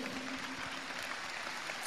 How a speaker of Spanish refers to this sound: Pónganse de pie los que tienen menos de 90 días en el negocio. Por favor, vamos a hacer un experimento aquí. Vamos a darle un aplauso a ellos.